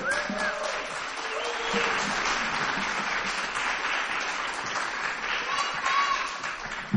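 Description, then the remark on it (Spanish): A concert audience applauds steadily for several seconds after the opening song, a dense, even wash of many hands clapping at once, with a few whistles and cheers rising above it. “Un aplauso.”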